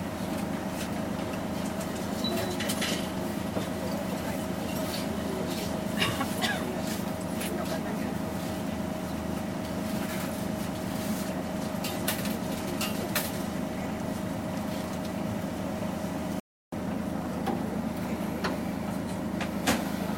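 A Toei (Tokyo Metropolitan) city bus engine drones steadily from inside the cabin, a constant low rumble with a faint tonal whine and light rattles, broken only by a brief silent gap near the end.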